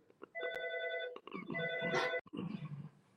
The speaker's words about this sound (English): oh my goodness, as my phone is ringing.